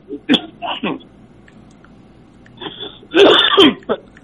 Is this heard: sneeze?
yes